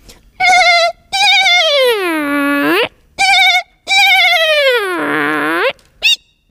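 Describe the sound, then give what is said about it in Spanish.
A person, saying goodbye, vocally imitates an otter with loud, squeaky calls: short chirps alternating with two long whining cries that slide downward in pitch, ending on a brief high squeak. “te voy a pedir que te despidas como una nutria y así ya no solamente aves, sino también animales que están por ahí por la tierra y por el, y por el agua.”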